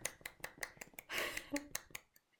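A hand clapping against itself makes a quick, fairly steady run of about ten sharp, crisp slaps, briefly blurred by a rougher rustling burst midway, then tapering off into a few fainter taps.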